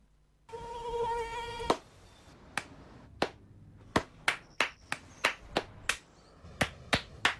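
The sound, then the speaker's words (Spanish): A mosquito's thin, high whine hums for about a second, then sharp hand claps snap out one after another, loud and irregular, as someone swats at it. No one speaks. “No aplaudamos al mosquito, combatámoslo en serio.”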